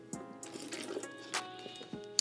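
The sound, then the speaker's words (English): Water pours and trickles into a container, with irregular splashy drips and sloshes over a couple of seconds and no talking. “me get some water.”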